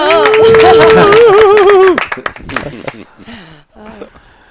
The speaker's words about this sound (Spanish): Joder, te aplaudimos.